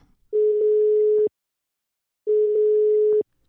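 A phone ringing tone sounds twice, each a steady, clear electronic tone lasting about a second, separated by a second of silence, with no voices present.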